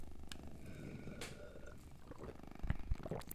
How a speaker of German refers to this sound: Okay, und jetzt trinke ich was.